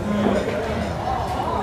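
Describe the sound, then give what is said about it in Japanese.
A steady wash of indistinct voices fills a busy bar, overlapping conversations blurring into a constant, fairly loud babble with no single speaker standing out. “そもそもねこれあのバックもうるさいですからちゃんと声入ってるかもわかんないし”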